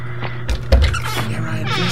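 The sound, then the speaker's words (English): Shuffling and scuffing noises from inside a toilet stall at midnight, a few soft rustling bursts, with a steady low hum running underneath throughout. “Shuffling sounds from the haunted stall”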